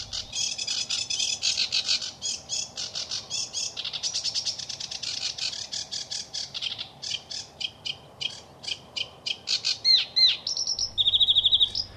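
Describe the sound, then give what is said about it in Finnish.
A sedge warbler, perched openly at the tip of a grass stalk, sings nonstop for about twelve seconds, a fast, varied jumble of chattering, grating notes and trills, with a few clearer whistled phrases toward the end. No voices are heard. “ruokokerttunen esittää lauluaan häpeilemättä ja avoimesti ruohonkorjen kärjessä”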